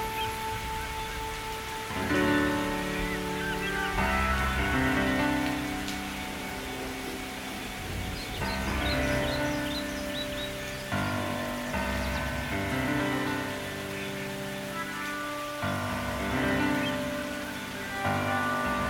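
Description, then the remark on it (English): Steady rain patters continuously on a surface, a soft, even hiss running beneath sustained, slowly shifting musical chords that change every few seconds. No one speaks. “Imagine those vibrations from the sound of the rain will meet the vibrations of the water within you”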